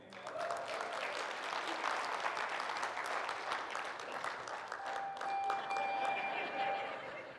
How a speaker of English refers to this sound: Don't clap, I got 50 more to go.